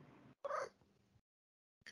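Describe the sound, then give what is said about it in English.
A female pet cat lets out a loud meow that trails off, followed after a short silence by the start of a second meow. No one speaks. “my kitty agrees.”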